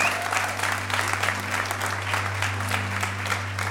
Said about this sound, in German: Lass uns bei der Band auch einen großartigen Applaus geben, oder?